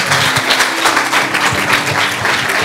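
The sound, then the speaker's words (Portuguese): A standing audience claps their hands together in praise of the Lord, in a dense, sustained burst of applause, many overlapping claps blending into a steady, loud wash of noise with no voices standing out. “Louve ao Senhor com as suas palmas.”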